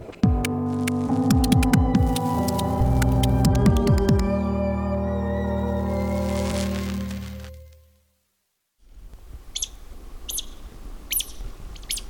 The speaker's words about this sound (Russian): Это звуки, которые издает даурская пищуха. Это такое совершенно мультяшное млекопитающее из отряда зайцеобразных.